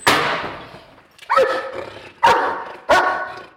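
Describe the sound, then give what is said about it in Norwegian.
A police dog, Pico of the Oslo police district dog service, barks four times, loud, with deep resonant barks spaced unevenly, each ringing out briefly before the next. No one speaks. “avsnittsleder for hundetjenesten ved Oslo politidistrikt, sammen med hunden Pico.”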